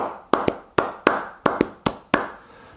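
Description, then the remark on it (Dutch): Crisp hand claps ring out in a steady, patterned rhythm, some landing in quick pairs and others as single beats, each with a short decay. About eight claps, with no voices. “Kijk, je kan natuurlijk ook in een ritme gaan klappen.”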